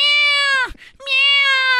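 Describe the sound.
A person imitates a cat with two long, loud, drawn-out meows. The first one bends downward at the end, and a quick breath separates it from the second.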